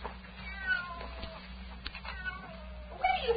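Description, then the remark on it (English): A cat meows a few times over a low background hum, the cries thin and somewhat muffled at first, then a louder, strained yowl near the end as a woman picks it up by the scruff of its neck. “She's picking the cat up by the scruff of its neck.”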